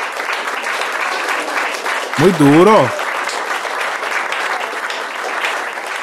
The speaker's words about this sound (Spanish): Dale un aplauso, papi.